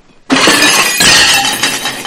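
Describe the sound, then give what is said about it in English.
A waiter drops a tray of dishes: a sudden loud smash of breaking crockery and glass, a second burst of shattering, then jangling, clattering fragments that keep ringing. No voices. “In about five seconds, a waiter's going to drop a tray of dishes.”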